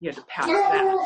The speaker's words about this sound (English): That's the dog. that's my wingman over there.